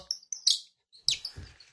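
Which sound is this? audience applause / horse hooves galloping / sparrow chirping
sparrow chirping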